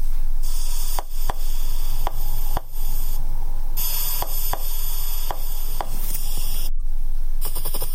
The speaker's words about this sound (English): that first sound there was a seahorse